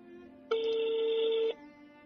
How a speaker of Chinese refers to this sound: 那现在来拨通我们的第二通电话，好紧张。